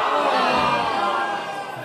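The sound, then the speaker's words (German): A large crowd shouting and roaring together in a dense, sustained wall of voices, though no goal has just been scored, loud throughout with a slight easing toward the end, no single voice standing out. “es ist gerade kein Tor gefallen, deswegen schreien die so.”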